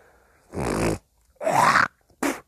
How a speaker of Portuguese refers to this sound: Pigarro! Que nojo, né?